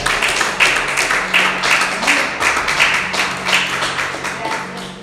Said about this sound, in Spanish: Hay que le puede dar un aplauso al Señor por eso.